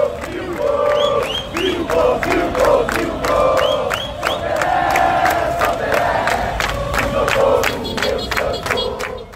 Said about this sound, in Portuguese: No caminho, torcedores entoavam o hino do Santos, o clube que projetou Pelé para o mundo, e gritos das torcidas organizadas do time, incluindo um que homenageia o rei do futebol.